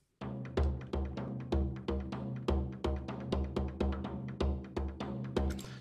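Frame drum beats out a steady, driving rhythm of loud, resonant strikes, some accented, over a sustained low tonal drone in the action sequence of a film scene's soundtrack, with no voices.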